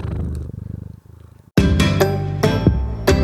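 A cat purrs right up close with a steady, pulsing rumble for about a second and a half, before a sudden much louder burst of other sound cuts in.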